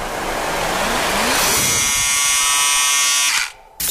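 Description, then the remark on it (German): A loud electric shaver buzzes steadily with a strong humming whine as someone is shaved, starting after a second of rough noise, then cutting out briefly near the end before a burst returns. “Jetzt wird rasiert.”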